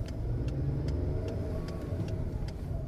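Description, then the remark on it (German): Steady low engine rumble from inside a moving car, with road noise throughout and a faint, regular ticking repeating every fraction of a second over the drone. “Also begibt der Auto sich ans Steuer seines Wagens und macht sich auf den Weg, die Tante zu besuchen.”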